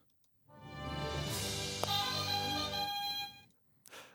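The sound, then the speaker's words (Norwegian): A few seconds of the intro theme music of the TV drama series The West Wing: rich, sustained chords swell in, hold steadily with a bright accent midway, then cut off, with no talking. “spørsmål nummer to, som er hvilk, hvilken TV-serie hører vi introen til her?”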